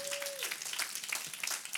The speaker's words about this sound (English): Can you say, man, we're gonna we're gonna be generous this morning? Come on, you guys can clap loud in that.